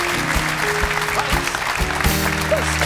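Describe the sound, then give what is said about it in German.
A studio audience claps steadily and loudly for a few seconds, a dense, unbroken wash of applause with faint musical tones underneath and no one speaking. “Ja, aber du hast trotzdem applausmäßig keine Chance gegen sie.”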